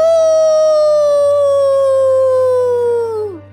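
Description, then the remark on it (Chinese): A single long wolf howl from beside a mountain cave, loud and clear, holding a steady mid-high pitch that sags slowly and then drops off sharply at the end, with no voices present. “山洞外面静得可怕，突然，从山洞旁边传来一声咆哮，嗷！”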